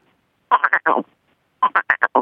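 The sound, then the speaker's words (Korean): A person imitates a frog croak using the tongue and throat, croaking in two quick rhythmic bursts of about four and then five throaty pulses, fairly loud with a short pause between them. “아, 개구리랑 개구리 마지막은 재수 없으니까 좀 까마귀로 끝내겠습니다.”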